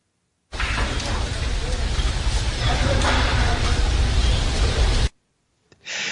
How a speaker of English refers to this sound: That's the sound of crematoriums in India.